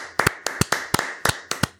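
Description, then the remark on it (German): A few people clap their hands in a quick, uneven rhythm, applauding the winner of a quiz game, about a dozen sharp claps over two seconds with no talking, fading out at the end. “Applaus, Applaus”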